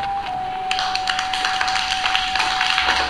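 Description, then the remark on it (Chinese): A kindergarten class of twenty children clap together on the first day of school in a scattered, uneven burst of many quick sharp claps that starts abruptly and keeps going steadily to the end, with a faint steady tone humming underneath. “谢谢你们的掌声，很有礼貌。”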